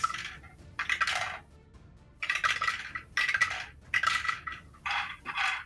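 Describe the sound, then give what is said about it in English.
A handful of five ten-sided dice clatters and rattles in several quick bursts, rolling and tumbling across a hard surface to roll damage in a tabletop game, with brief pauses between rolls and no talking. “So, give me the 5d10. We gotta find 5d10s, hang on.”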